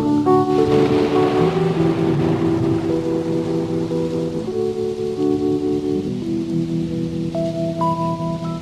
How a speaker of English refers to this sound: thunder, bring in the thunder.